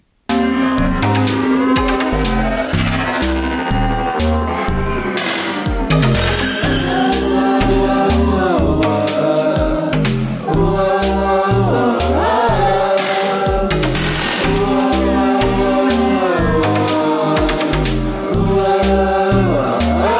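An electronic track, a note-for-note cover of another electronic track, plays loud and unbroken for about twenty seconds, with a steady pulsing bass pattern beneath layered, sustained synth tones and shifting melodic lines, no voices.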